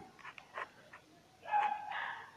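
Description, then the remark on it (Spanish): Dogs bark and whine faintly in the background late in the day, a few short, scattered yelps followed by a longer, more sustained burst of whining and barking near the end. “Se escuchan perros de fondo.”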